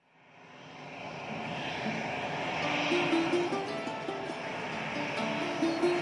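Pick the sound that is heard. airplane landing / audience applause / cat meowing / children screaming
airplane landing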